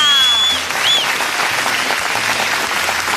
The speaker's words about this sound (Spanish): Mis aplausos, hermano.